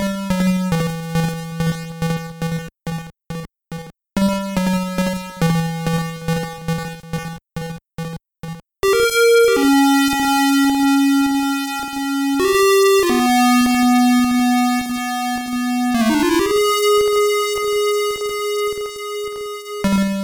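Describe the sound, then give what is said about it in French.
Chiptune video game theme from a Game Gear: buzzy square-wave tones, first a choppy staccato riff of repeated low notes, then long sustained melody notes that step up and down, loud throughout. “Et puis, et puis je te propose, puisque puisqu'on a longuement tourné autour du pot, qu'on s'écoute le, thème de, de Genan sur, sur Game Gear.”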